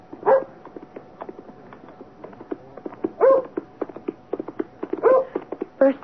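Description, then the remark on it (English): A dog gives several sharp barks spaced a second or two apart, with softer whimpering yelps and short scuffling clicks in between, with no speech, on a lonely road over a moor on a still January afternoon with hard ground. “dog, and then a man on horseback, galloping furiously.”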